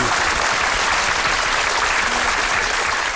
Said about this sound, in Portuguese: Até mais, professor. Palmas para ele.